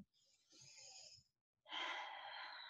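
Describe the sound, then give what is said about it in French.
Someone draws a long, deep breath in as part of a short breathing exercise, pauses briefly, then lets out a fuller, louder breath. The airy rush of each breath stands alone, with no talking. “Je vous invite à prendre une grande respiration”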